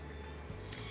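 A small monkey gives a quick high-pitched squeak followed by a longer, shrill squeaking call, with no talking over a faint background hiss.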